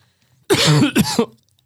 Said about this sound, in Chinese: 啊，行吧，我们这个节目就在一阵咳嗽当中就开始了。